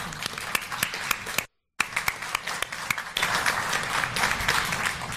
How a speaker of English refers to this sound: Okay, and uh, I think we give a round of applause to the people who've served us.